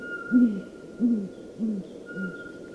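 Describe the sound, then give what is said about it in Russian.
A male owl's low, muffled hooting: four soft hoots evenly spaced about a half-second apart, fading slightly toward the end, over a faint steady background hum. “Вот, это самец. Да, вступил такой же баритон.”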